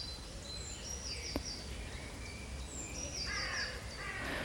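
A spring dawn chorus of many resident and migrant birds calling and singing at once in a deciduous oak woodland in the West Country, with harsh crow-like caws among higher chirps and warbling phrases, layered and continuous over a steady outdoor background.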